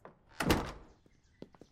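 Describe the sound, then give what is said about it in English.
A door swings shut with a solid thud, followed by a few faint clicks and knocks as the latch settles, with no one speaking. “He closes the door.”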